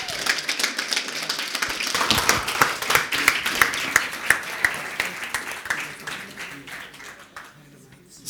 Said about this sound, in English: We are allowed to clap.